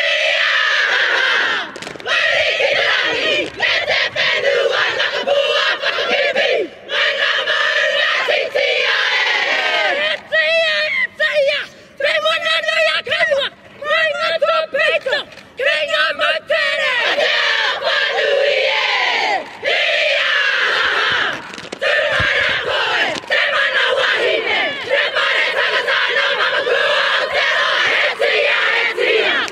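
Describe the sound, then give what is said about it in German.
A group performs a Māori haka war chant at a farewell for a retiring teacher: loud, forceful rhythmic cries in unison with sharp barked syllables and sustained yells, continuous throughout without pauses. “Googelt, googelt das, YouTubet das mal und schaut euch mal so ein paar Hackers an.”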